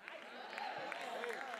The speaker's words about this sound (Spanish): Si ese es el aplauso, dáselo más fuerte. Si ese es el aplauso, dáselo más fuerte.